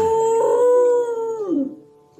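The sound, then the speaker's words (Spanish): A female dog singing along to a piano lets out one long, loud, steady howl that holds its pitch before sliding downward and trailing off, with no talking. “A ver, espérame, tú, este, escuchemos a la perrita.”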